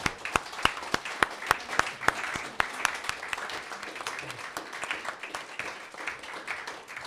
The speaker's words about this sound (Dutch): Maak een applaus voor